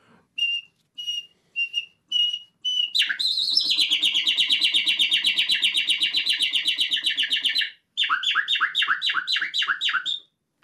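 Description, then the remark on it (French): A person whistles an imitation of nightingale song: a few short repeated notes, a long rapid warbling trill, then a run of quick falling swoops. Fairly loud, with no talking. “le chant merveilleux de l'oiseau qui a inspiré poète euh, et, musique, qui est le rossignol Philomèle”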